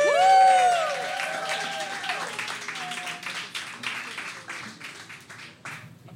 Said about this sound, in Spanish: Ok, bueno, pues, damas y caballeros, esto se está poniendo bien chido. Este, quiero pedirles, obviamente, un fortísimo aplauso.